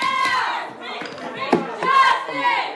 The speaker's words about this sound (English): And then the Black Lives Matter protesters. They start shouting